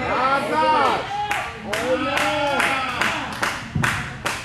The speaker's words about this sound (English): Thank you, sir. That clap get loud and loud. yes, sir. Glory to God.